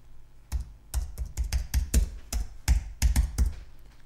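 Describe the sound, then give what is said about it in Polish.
Someone types on a wireless computer keyboard, a quick, uneven run of crisp plastic key clicks and taps lasting a few seconds, with no voices. “Nie pisze mi klawiatura. Muszę się przyłączyć tutaj.”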